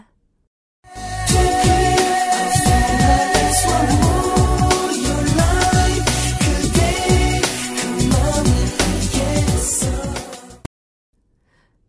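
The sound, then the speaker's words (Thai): A K-pop track built around the main melody of Tchaikovsky's ballet Swan Lake plays loud and full for about ten seconds over a driving, punchy beat, starting after a brief silence and cutting off abruptly. “ทำนองอันนี้เนี่ย มาจากบัลเล่เรื่องดังที่มีชื่อว่า Swan Lake แต่งโดยนักประพันธ์ชาวรัสเซียพีเตอร์อิลิกชัยคอฟสกี้ตอนขึ้นมาเนี่ย คือใช่เป๊ะเลยนะคะ”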